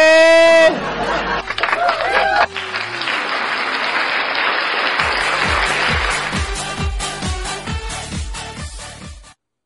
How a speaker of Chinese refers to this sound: 挥舞手中的小花，欢呼声在哪里？